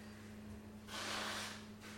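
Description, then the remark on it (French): Someone blows their nose in a short, breathy burst followed by a second briefer puff, fairly quiet, over a steady low electrical hum with no talking. “Ça tousse là Ça sort, ça se mouche.”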